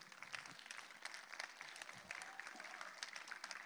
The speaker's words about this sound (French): On peut applaudir celui qui apporte le, pied aussi.